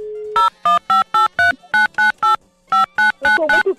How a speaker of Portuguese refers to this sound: Acho que agora funcionou o telefone do infeliz do bêbado.